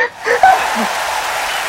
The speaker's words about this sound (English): Big round of applause